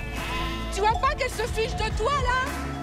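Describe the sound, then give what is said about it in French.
Ewes bleat repeatedly in wavering, quavering cries as they are brought back, overlapping with a person talking over them throughout. “Les brebis, tu les ramènes ici.”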